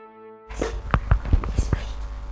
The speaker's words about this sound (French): L'esprit s'exécute et frappe successivement le nombre de coups correspondant au numéro des trois chevaux gagnants.